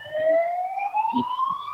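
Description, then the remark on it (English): An ambulance siren wails loudly and continuously as the ambulance passes by, its tone sliding slowly upward, with faint low rumbles beneath and no voices present. “kind of ironic that an ambulance just yeah.”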